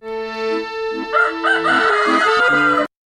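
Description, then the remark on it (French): A rooster gives a single long cock-a-doodle-doo crow, loud, with a steady, reedy, drawn-out tone lasting about three seconds before stopping abruptly. No one speaks. “Il y a les coqs euh, qui chantent dès 6 heures du matin.”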